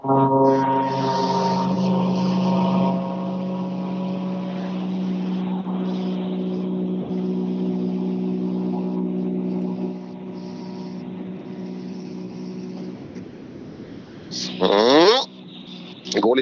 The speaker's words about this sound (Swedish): Jädrar vilket ljud det är i DS3 i R5-utförande. Det är otrolig pip. Det låter så jäkla skönt alltså.